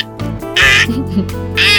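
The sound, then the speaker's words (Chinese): A child voicing a crow character in a story imitates a crow with two loud, flat, nasal "caw" cries, each roughly half a second long, separated by a brief pause. The voice is harsh and bright, with no other talking. “因为你有观察到乌鸦叫就是这种声音，然后就是扁扁的，对不对？”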